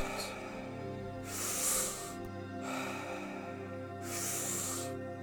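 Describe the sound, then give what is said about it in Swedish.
Two slow, deep breaths during a guided breathing exercise, each a long airy rush of inhaling and exhaling, rising and falling over a soft, steady musical drone. “Andas in, andas ut och håll.”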